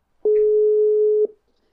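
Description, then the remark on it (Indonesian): A single steady telephone line tone sounds while a call is being placed, a clean mid-pitched hum lasting about a second with a click at start and end, and no voices. “Oke, langsung aja kita hubungin.”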